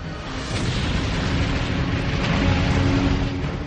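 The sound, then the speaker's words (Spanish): A loud, continuous explosive roar from a bomb striking the center of a Japanese transport ship and blowing out a side of its hull, a dense rumbling wash of noise that holds steady throughout with no voices. “Ha reventado un costado del casco y ha matado a todos los marineros y soldados japoneses atrapados en el radio de la explosión.”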